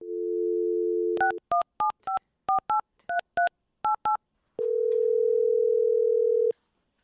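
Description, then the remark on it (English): A steady telephone dial tone, then about ten quick touch-tone keypad beeps in an uneven rhythm, followed by a long unbroken tone. Clear, with no voices. “So I immediately emailed her back and said, Not to be weird, but can we give you a call?”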